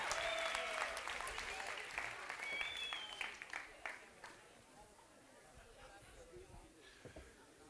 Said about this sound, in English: Why don't you guys give these two a round of applause as they make their way?